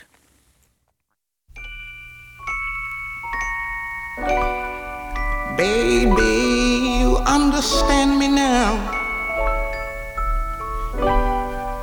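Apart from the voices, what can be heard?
song playing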